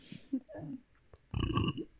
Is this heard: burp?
yes